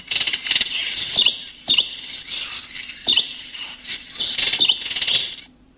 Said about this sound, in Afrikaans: Kom ons luister gou net hoe klink die manne. Hier is die gewone Kaapse mossie.